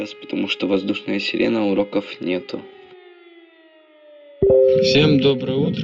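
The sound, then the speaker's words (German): An air raid siren wails in a long, slowly falling tone, sounding steady and moderately loud. Someone talks over it at first, and more voices come in near the end. “Habe ich alle Sirenen verschlafen? Ach nein, jetzt heult sie wieder.”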